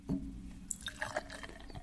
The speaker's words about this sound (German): Ähm, Dose auf, erstmal ins Glas, dann